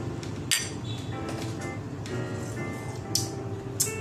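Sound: cups clinking together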